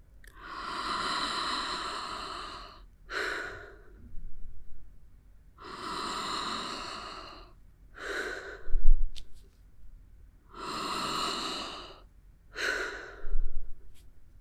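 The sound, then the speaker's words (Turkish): Deep, continuous breathing: three long, airy inhale-exhale cycles follow each other with almost no pause, each breath broad and whooshing, with no talking. “Hiç duraksamadan aynı şekilde derin nefesler almaya devam edin. Nefesler arasında hiç boşluk olmadan birbirini takip eden bağlantılı nefesler.”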